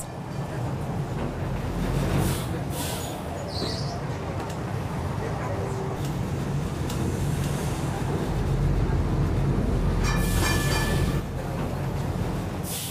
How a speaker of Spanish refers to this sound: El tranvía sortea con soltura pronunciadas curvas e increíbles pendientes.